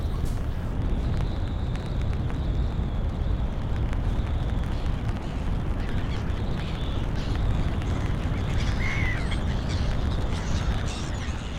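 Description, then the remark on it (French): Sea waves break on the shore in a loud, continuous rushing roar, deep and rumbling, with no pauses and no voices over it. “Parmi les sons de la nature, le bruit des vagues est l'un des plus connus et des plus appréciés”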